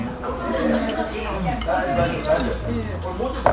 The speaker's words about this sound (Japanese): はい案外居酒屋でも行けるかなということで続きます雑音うるさいですかすいませんすいません